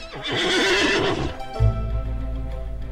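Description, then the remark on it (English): A horse whinnies loudly, a quavering, high-pitched neigh lasting about a second and a half, followed by a deep low snort and rumbling breath. “I'm just a talking horse, all right?”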